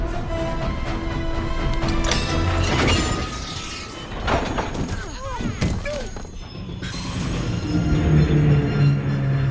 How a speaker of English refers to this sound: Who in the blazes applied that emergency brake? He did! You. In case you didn't know, that cord is for emergency purposes only.